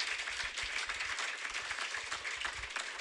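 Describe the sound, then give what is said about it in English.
A crowd at an event in America breaks into steady applause after a speaker marks eight years since giving up drugs and alcohol. Many hands clap in a dense, even crackle that holds at a constant level for the whole stretch, with no voices standing out. “One never likes to assume there'll be an applause there, but I knew that I was in America and it was likely.”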